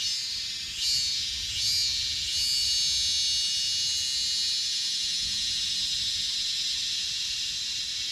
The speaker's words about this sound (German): Hörst du dieses? Da brummt immer noch mal ja? zwischendurch. Das hier. Zikaden. Und manchmal ja. hört sich ein bisschen an wie eine Flugzeugturbine fast. Ja. Es hört sich immer unterschiedlich an. Das sind auch unterschiedliche Arten.